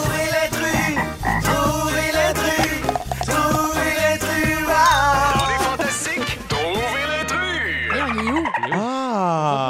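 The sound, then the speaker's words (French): Someone imitates a dolphin with loud, swooping squeals that glide rapidly up and down in pitch, following several seconds of busy, croaky vocal noise. “Qu'est-ce qui veut dire ce cri de dauphin-là”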